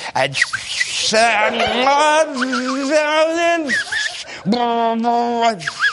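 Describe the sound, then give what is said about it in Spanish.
A man's voice mimics a revving car engine, as the noise for an electric car, with sustained buzzing vroom sounds that rise and hold in pitch, in two drawn-out bursts, fairly loud, ending with a short laugh-like breath. “En cualquier caso, como era de esperar, a mí no me hace falta que los coches eléctricos hagan ruido porque ya se los puedo yo meter tranquilamente.”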